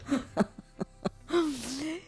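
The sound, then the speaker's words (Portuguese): Snoring: a run of short snorting breaths, about one every quarter second, then a longer, whiny, drawn-out exhale that rises and falls in pitch. No one speaks. “Confia em mim, deixem ela roncando que é melhor.”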